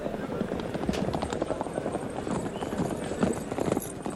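Horse hooves clip-clop in a quick, dense rhythm at a horse racetrack in Zagreb, as if several horses are running, with a steady low rumble underneath throughout.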